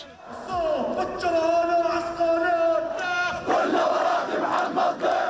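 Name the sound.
protesters shouting slogans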